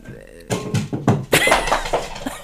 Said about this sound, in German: das war gerade meine Katze, die die Inneneinrichtung zerstört.